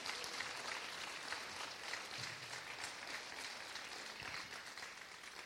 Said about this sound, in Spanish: porque le damos un fuerte aplauso a Dios? Muchas gracias, Jesús. Muchas gracias.